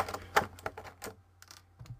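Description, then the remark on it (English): A small plastic toy dagger, an action-figure accessory, clatters onto a computer keyboard, setting off a quick scatter of sharp key clicks and rattles over about two seconds, with no talking. “I think I might have dropped one. Oh, here it is. under my keyboard.”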